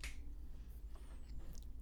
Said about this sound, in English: Not only did you get claps, but I gave you snaps. The cool kids snap their fingers.